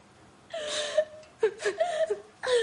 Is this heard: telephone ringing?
no